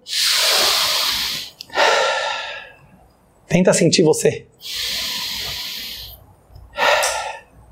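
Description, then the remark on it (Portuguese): Slow, deep breaths, long airy inhales and exhales alternating in a steady rhythm, with a brief spoken phrase in the middle. “Pessoal, todo mundo, vou pedir para todo mundo do YouTube, do Instagram, do Facebook, respira fundo.”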